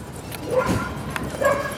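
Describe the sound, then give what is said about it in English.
A dog gives a couple of short barks mixed with high, thin whimpering whines, the sounds coming in two brief bursts over a steady low background. “Uh, so the first thing I like to do is establish trust between uh, myself and the dog let the dog smell you.”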